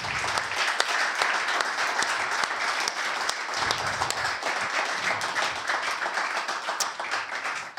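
A live audience applauds to welcome a guest, a dense crackle of many hands clapping at an even, fairly loud level throughout, with no voices standing out.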